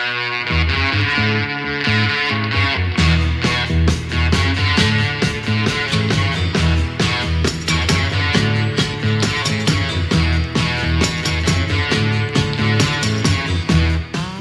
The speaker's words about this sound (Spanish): Y en pocos meses se agotaron de las casas de música los pedales de distorsión Gibson Master Fast Box. Era un nuevo sonido, era el sonido rock.